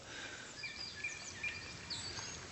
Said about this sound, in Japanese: 鳥の声は聞こえましたでしょこれはアファンの中の音ですそのままですねとアファンって意味は風が通るところ